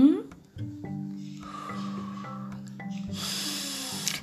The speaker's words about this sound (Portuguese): Se você perceber que o pensamento está trazendo negatividade, pare, conte, respire fundo, conte até três, respirando fundo.